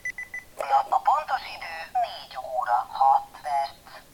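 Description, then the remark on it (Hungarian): A few quick, thin electronic beeps from a watch alarm chirp at the start, fairly soft; the connected watch only beeps and does not vibrate. Then a person begins talking and the beeping fades under the voice. “Az óra már ébreszt, de pedig csatlakoztattam, és, és valamiért nem rezeg. Csak csipog.”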